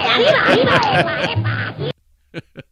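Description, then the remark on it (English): A person does an impression of the cartoon duck Daffy Duck, a loud, raspy, sputtering quacking voice that runs for about two seconds, followed after a short pause by two brief, quieter vocal bursts. “Daffy Duck? Daffy Duck!”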